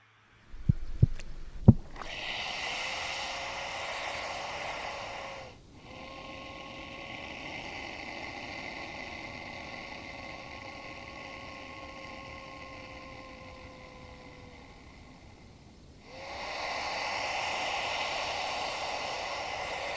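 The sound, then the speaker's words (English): A few sharp knocks, then three long, low droning rumbles from two different crocodilians flirting, calling back and forth, each steady and humming with a buzzy, harmonic tone over a wash of hiss. No one speaks. “And um, yeah, this so this is two different crocodilians flirting, essentially.”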